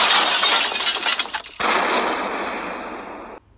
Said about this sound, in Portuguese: As explosões estavam cada vez mais fortes.